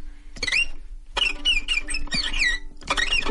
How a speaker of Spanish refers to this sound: No, es un piolín, eso no, es un pajarillo. Un pajarillo. Es de un pajarillo. de blancas alas, claro.